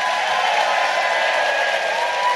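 audience applauding and cheering

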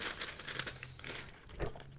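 paper letter being handled

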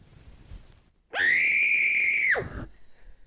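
person screaming loudly

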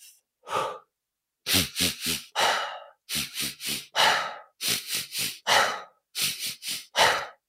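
three quick nasal inhales

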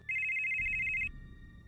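cellphone ringtone ringing

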